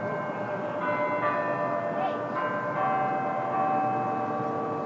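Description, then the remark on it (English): Tower chimes ring out at noon at Denver City Hall in layered, sustained tones, the notes overlapping and lingering as new strikes arrive every second or so, over a steady outdoor hum. “Every day at noon, chimes ring at Denver City Hall.”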